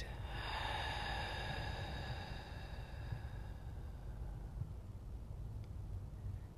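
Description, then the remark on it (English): A person sitting with eyes closed takes a slow, deep breath in and fully out during a guided meditation, a soft airy rush that fades over a few seconds into quiet low background hum. No one speaks. “So please sit down somewhere where you can't be disturbed and close your eyes for a moment and take a deep breath in and fully out.”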